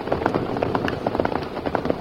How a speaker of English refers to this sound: Hurry out of this rain, Tonto.